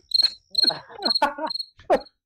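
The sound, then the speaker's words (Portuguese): A cricket chirps loudly and close, inside a microphone, in four quick, evenly spaced trilling bursts, with muffled rustling and murmuring sounds mixed underneath. “Cara, pegou na mão agora o grilo, hein?”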